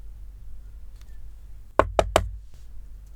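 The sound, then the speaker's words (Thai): Three firm knocks in quick succession on a friend's door at a women's dormitory, fairly loud, with a low background hum and no voices. “มึง มึง มึงมีอะไรก็เปิดประตูมาคุยกันก่อนดิ กูขอเข้าไปคุยกับมึงก่อนได้ไหม”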